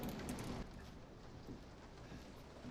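Steady, even hiss of rain falling outside at night, a continuous soft wash of noise with no breaks, fairly faint, with no voices present.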